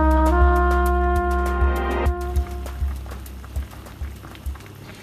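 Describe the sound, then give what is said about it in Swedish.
A pot of white cabbage boiling for a leftovers gratin, with irregular bubbling pops and gurgles over a steady low hum that fades after the first couple of seconds. No one speaks. “Här kokar vitkål för en restmatsgratäng.”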